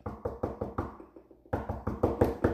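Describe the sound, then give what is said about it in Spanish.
Knocking on the door of Ryan Reynolds' house in Malibu, California: a few steady raps, a short pause, then a louder, quicker run of knocks. The knocks sound solid, with no voices. “Y Ginger toca la puerta.”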